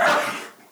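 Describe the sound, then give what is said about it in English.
A single sudden sneeze, loud: a sharp, breathy burst that fades quickly within a second, with no talking around it. “Sorry. Salute.”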